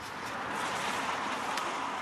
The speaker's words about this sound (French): Oh là, il y a des voitures.